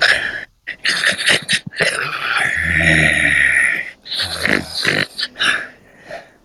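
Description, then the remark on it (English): A voice performs a creature character's breathing, with raspy, growly inhales and exhales, finishing with a short sharp sniff. “Because just finding the sort of breath pattern of the creature is insanely important, right?”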